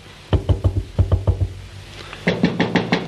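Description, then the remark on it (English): Someone knocks on a door in three quick bursts of about four raps each, solid, the last set sounding brighter and sharper, with no voices. “Um, yes, come in.”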